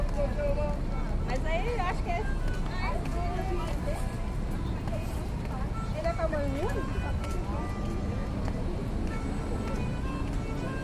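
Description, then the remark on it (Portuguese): Busy outdoor crowd ambience at the weekly street fair at Sanspena on a Friday, with overlapping voices and chatter, scattered tonal calls and clatter, a steady dense hubbub throughout. “É sexta-feira e quando chegamos na Sanspena ficamos tentados a nos perder pela feirinha que acontece ali toda semana.”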